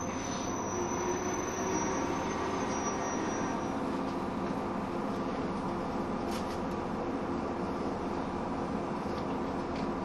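A 103 series commuter train on a Bantan Line local service between Himeji and Teramae rumbles steadily along the rails, a continuous roar of wheels and motors with faint high squeals, heard from inside the carriage with no voices.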